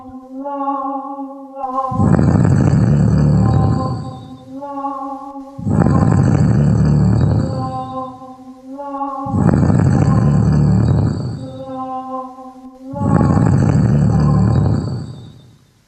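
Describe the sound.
A giant's snoring: four slow, regular cycles, each a loud, deep, rumbling snore followed by a quieter whistling, tonal breath. No one speaks.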